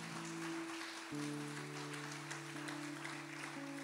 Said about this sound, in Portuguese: Amém? Você pode dar uma salva de palmas a Jesus por isso?